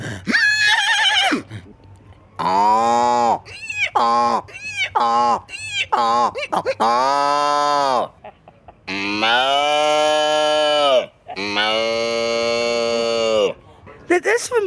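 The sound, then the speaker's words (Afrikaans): A person imitates a horse, producing a series of loud whinnying calls: short quavering bursts followed by several long, drawn-out wavering neighs with brief pauses between them. “Jy sê ek kan verstaan dat jy terug verlang na daai dag, maar dan die geluid van die perd.”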